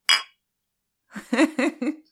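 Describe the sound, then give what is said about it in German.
A single bright glass clink of two beer bottles knocked together in a toast, ringing briefly, followed after a pause by a short rhythmic burst of voice, like laughter. “Ich habe genau, hier keine Prost. zwei Bierflaschen.”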